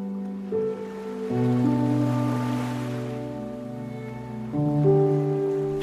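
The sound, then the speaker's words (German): Ocean surf swells and washes softly in the background on a sandy beach at sunset, blended with sustained, slowly shifting synth-like chords. The rush builds in the middle and then recedes, with no voices present. “spürst noch einmal das warme, goldene Licht der untergehenden Sonne auf deiner Haut, hörst das Rauschen des Meeres.”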